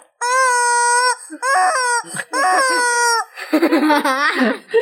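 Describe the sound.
A squeaky rubber chicken toy squawks four times in long, shrill, wavering honks, each loud and reedy, with the last one turning raspy and breathy as the air runs out.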